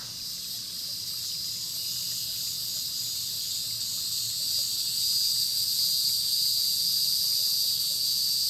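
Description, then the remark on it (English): A steady, high-pitched drone of locusts humming at nightfall by a pond fills the air without pause, growing slightly louder toward the end. There is no speech, only a faint low rustle beneath. “The hum of locusts rose in the air.”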